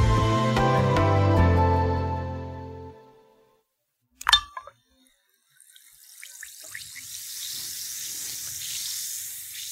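After a fading musical tone, an effervescent painkiller tablet plinks into a glass of water, followed by a steady fizzing hiss that keeps going to the end.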